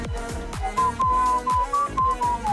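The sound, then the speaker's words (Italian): A person whistles a thin, wavering melody in a few sustained notes over dance music with a steady, punchy beat, no talking. “Eh, eh, scusa, mi esce solo questo fischio.”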